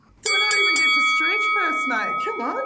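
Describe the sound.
A bright bell is struck three times in quick succession, loud, its ringing tone lingering steadily while a person starts talking over the fading chime.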